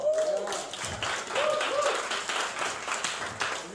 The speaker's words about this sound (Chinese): 你们准备好了吗？准备好了，给神一个掌声好吗